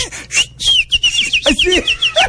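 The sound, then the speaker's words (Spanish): Small birds at a window chirp in a quick, bright run of short, high tweets. The tweets are clear, with no voices over them. “O sea, ese día desde hasta pajaritos hay en tu ventana.”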